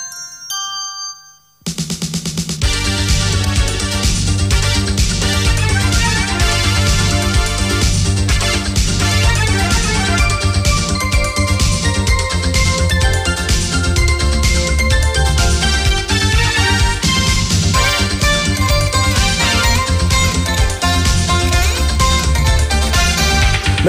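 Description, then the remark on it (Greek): A loud music track kicks in after a couple of seconds of near silence, with a steady bass pulse and bright layered melody, playing continuously with no talking until it is abruptly cut off. “να βρούμε ποιο κομμάτι είναι.”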